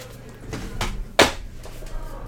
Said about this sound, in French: Faut que j'écrase un insecte à côté, ça va faire du bruit.